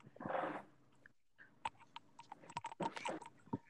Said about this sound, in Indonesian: Nih, gue tulis eh gue ngetik.